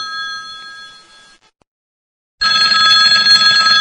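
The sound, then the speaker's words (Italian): A telephone bell rings in two bursts: a first ring fades out, then after about a second of silence a louder ring starts up. No one speaks. “Bene, bene, bene, mi dicono già che c'è una telefonata e vediamo un po' di prenderla allora.”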